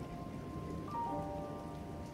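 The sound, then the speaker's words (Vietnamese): Steady rain falls in a dense, even hiss across the whole stretch, with a faint tonal hum briefly rising over it midway. No one speaks. “Mưa năm nay về trễ hơn mọi năm, nhưng khi đã mưa được thì mưa hoài không dứt.”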